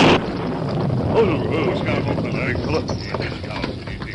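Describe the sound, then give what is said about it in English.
Wind from a sudden storm of short duration roars steadily and loudly for about four seconds, a broad rushing wash with brief whistling, wavering tones sweeping through it. “A sudden storm of short duration hit just after the Indian and Dan left the shack.”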